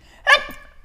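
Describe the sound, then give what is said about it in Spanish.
A single sharp sneeze bursts out, loud and abrupt, then trails off quickly into a faint breathy tail before quiet returns. “Salud. Ay. Gracias.”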